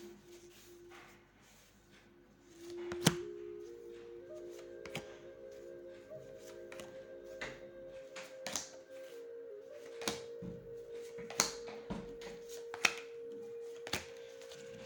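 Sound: shuffling tarot cards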